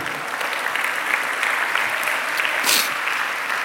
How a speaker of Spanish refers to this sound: ¿Cuánto dan un aplauso al Señor, amado hermano?